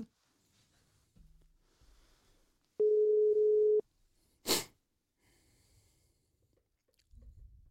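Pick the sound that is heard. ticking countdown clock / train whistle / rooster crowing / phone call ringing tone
phone call ringing tone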